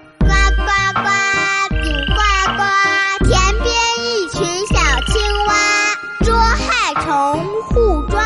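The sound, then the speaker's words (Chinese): Frog-like croaking tones, loud and sliding in pitch, repeat in short bursts over a steady, bouncy beat with deep thumps, like a playful children's tune. “听，宝贝。 我是快乐的小青蛙。”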